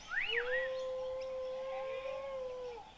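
A dingo lets out a long, steady howl held on one pitch for nearly three seconds, with a brief higher rising yelp at the start, clear with no talking.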